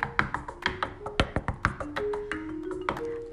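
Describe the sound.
A rapid, uneven run of a dozen or so sharp, hard knocks, fairly loud, someone rapping on a surface to mimic extremely hard knocking running along an entire wall, as if someone ran pounding the wall with a fist at one in the morning, with no talking.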